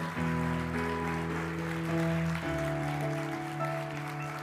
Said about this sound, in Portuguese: Você pode aplaudir ao Senhor por uma palavra dessa? Você pode dar um glória a Deus, um grito de júbilo ao Senhor?